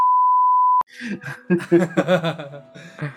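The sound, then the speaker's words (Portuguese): A steady, high-pitched censor beep holds for nearly a second and cuts off abruptly, followed by bursts of laughter and giggling. “Eu vou cortar o áudio em 3, 2, 1.”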